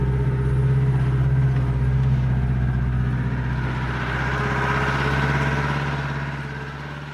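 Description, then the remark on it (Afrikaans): A vehicle drives about a kilometre into Rooikrans, its engine running steadily with a low, droning hum and a rough mid-range rumble, staying loud throughout before easing off slightly near the end. No one speaks. “Hier nou gaan ons vir so 'n kilo afry binne in Rooikrans”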